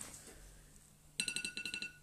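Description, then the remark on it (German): A wristwatch alarm, signalling that it is time to baste a roasting bird, rings in a quick run of about eight bright, high-pitched electronic beeps, starting suddenly after a quiet stretch and repeating in a steady, rapid rhythm. “Entschuldigung, dass es hier klingelt, das ist meine Uhr, das heißt, ich muss den, den, den, den Vogel mal wieder ein bisschen übergießen, ah, damit er frisch und zart äh, wird.”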